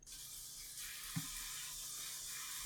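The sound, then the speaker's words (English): A faucet runs steadily, pouring water in an even, hissing stream with a brief soft knock partway through. It's fairly quiet, with no voices. “I can like very much hear that water yes. in the headphones.”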